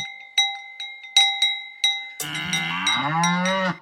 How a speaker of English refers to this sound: Not only cowbells and crisp alpine air, but you wait for cheese and chocolate and road tours through those Alps.